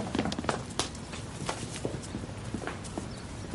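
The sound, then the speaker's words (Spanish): Footsteps of people who have left by a house's back door hurrying down a flight of stairs: a quick, slightly uneven run of sharp knocking steps over a low steady background rumble, with no one talking. “Bajan las escaleras y se esconden en un lateral.”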